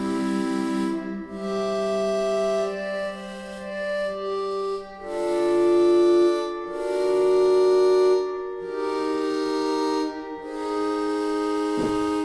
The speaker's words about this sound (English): So it has a really airy kind of. It might be sort of a reed instrument. Like I'm not exactly sure. It's kind of like a theremin. Yeah, it sounds like a theremin mixed with sort of an, a really light, airy kind of organ.